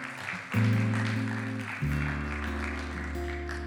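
A crowd claps steadily throughout, a dense wash of applause over sustained, loud keyboard chords that shift twice. No one speaks.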